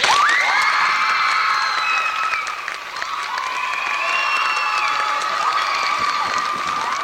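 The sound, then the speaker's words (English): A crowd of teenagers erupts in loud, sustained cheering as a keyboard performance ends, with high-pitched shouts, whoops and some clapping that hold steady for the full seven seconds, energetic. “And then I lift my fingers off the keyboard and everybody erupts.”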